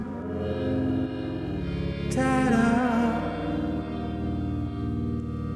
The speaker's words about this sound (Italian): Con degli effetti che sembrano dei ronzi che entrano e spariscono. E sui quali viaggia questa voce con tantissimo effetto di riverbero butta lì delle parole.